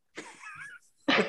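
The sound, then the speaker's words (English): A voice imitates a helicopter's chopping rotor with two raspy, breathy bursts: a longer throaty one, a brief pause, then a sharp, forceful one. Fairly loud, with no words. “that, was my, that was my helicopter.”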